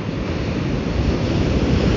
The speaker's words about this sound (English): The waves have been like just too scary for me.